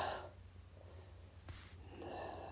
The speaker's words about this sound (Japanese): もうこれぐらい喋っただけでもう息切れしますよ